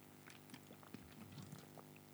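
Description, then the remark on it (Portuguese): Someone takes a quiet sip of water, with a few soft gulps and faint liquid slurping sounds over about two seconds and no talking. “Deixa eu tomar uma água.”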